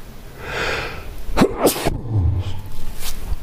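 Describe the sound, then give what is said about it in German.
A breathy, hitching inhale builds up, then a single loud, sharp sneeze bursts out, followed by a brief low exhale. No one speaks. “ja, gleich muss ich niesen.”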